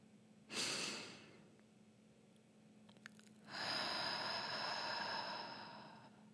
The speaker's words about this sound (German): Schließe deine Augen, atme tief durch die Nase ein und hörbar durch den Mund aus. Lasse den Atem fließen.